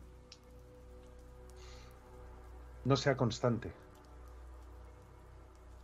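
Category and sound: nature, rain falling outside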